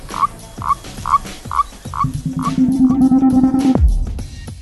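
A toad croaks in a steady run of short, evenly spaced calls, then breaks into a louder, sustained buzzing trill that stops abruptly, with no voices present.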